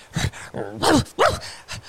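A dog lets out a few short, gruff barks mixed with throaty growling, in quick uneven bursts over a couple of seconds.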